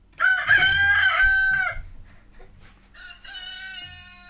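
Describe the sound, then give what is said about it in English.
A loud rooster crows once, a long harmonic call, followed by a quieter second crow, with faint farmyard noise and scattered fowl sounds in between. “I think we're going to have some other random chickens in the background as well, probably.”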